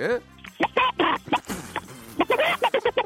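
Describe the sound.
A man imitates a rooster crowing with his voice in a voice-impression contest on Park Myung-soo's radio show, a string of loud, strained vocal bursts in an uneven rhythm, the last few short and clipped.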